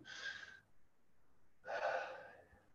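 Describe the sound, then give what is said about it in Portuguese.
Two sharp, breathy gasps, like sudden intakes of air, fairly loud: a quick one, a pause of about a second, then a longer, rougher one. A voice performs the gasps, imitating the intake of breath Krishna is said to have given. “Aqui, Krishna deve ter dado aquela puxada de ar, sabe?”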